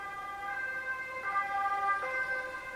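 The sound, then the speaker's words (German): Ambulance and police sirens wail steadily, several tones layered and sliding together, loud and continuous for the whole stretch with a faint road rumble underneath and no voices. “Schon von weitem war das Blaulicht des Krankenwagens und der Polizei zu sehen.”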